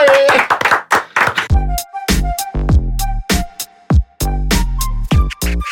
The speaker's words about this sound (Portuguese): Palmas pra você, senhor!